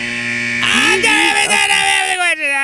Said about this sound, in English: there goes the buzzer. Darn it.